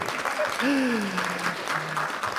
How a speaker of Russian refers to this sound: Я слышу вот этот вот э, зарождающийся шквал аплодисментов. Да?